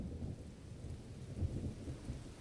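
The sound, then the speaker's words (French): A deep, continuous rumble of thunder rolls beneath a steady hiss of rain, the low roar swelling slightly midway through without any voices. “Mais quand l'orage grondait, la malheureuse n'avait rien à manger car elle n'osait pas sortir de chez elle.”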